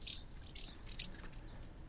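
Several short, bright chirping calls of house martins repeat at an irregular rhythm, about three clear bursts over steady faint background noise, with no one speaking.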